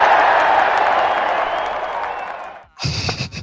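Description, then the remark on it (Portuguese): A crowd applauds in a dense, steady wash of clapping that slowly fades over a few seconds, followed by a short, sharper burst of noisy sound at the end. “Pra ele, pra ele, ele não merece palmas, ele merece o Tocantins inteiro.”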